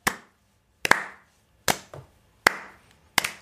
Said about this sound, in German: Und ich möchte jetzt bitte einen Slow Clap starten hier für alle Mamas da draußen. Oh. Ah, und auch Väter natürlich. Ja. Ja, ja. Aber wir haben doch mehr Hörerinnen. Also, Mamas und Papas, Slow Clap für euch.